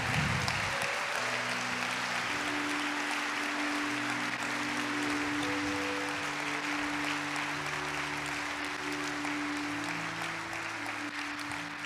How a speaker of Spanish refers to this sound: Apláudale fuerte a Él.